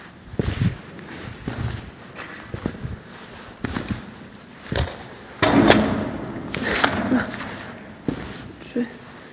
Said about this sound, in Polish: Teraz właśnie się potknęłam E, jakieś metalowe profile. Chociaż wyglądają jak takie długie podłużnice, ale to takie małe zboczenie. Możemy pomyśleć, że to jakieś kable, ale nie.